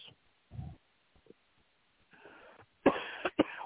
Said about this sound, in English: I am so sorry for my cough.